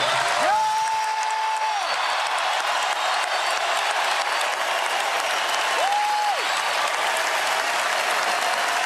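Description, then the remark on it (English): A large arena crowd at a Golden State Warriors game against the Hawks gives a sustained ovation, loud continuous applause and cheering filling the whole stretch, with a couple of brief whistle-like tones rising over the roar. “I'd like for all of us to give Deki an ovation that he can hear up in heaven”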